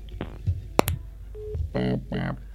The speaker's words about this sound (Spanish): Le gustaba mucho hacer que, que se escuchase cómo se cuelga el teléfono. Un toque de autenticidad.